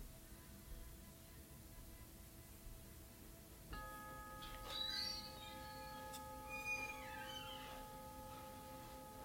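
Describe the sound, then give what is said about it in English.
A meditation bell is struck once a few seconds in, marking the end of a meditation session, and rings on with a steady, shimmering tone that lingers to the end, alone with no talking and a few faint background chirps. “at the sound of the bell, we'll conclude today's meditation.”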